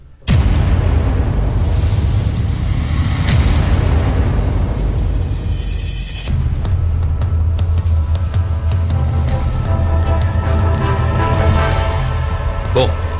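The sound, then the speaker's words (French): A loud radio show jingle introducing a segment on the board game Isapan plays for about thirteen seconds, opening with a dense, booming rush of sound and then switching midway to a steadier section with sustained tones over a heavy low end. “C'est parti, jingle.”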